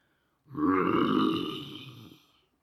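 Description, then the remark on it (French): A low, rumbling vocal grumble lasting about two seconds, a person imitating a lion's weak, sleepy growl, steady before trailing off. “grommela faiblement le lion en se fouettant paresseusement le cou du bout de sa queue.”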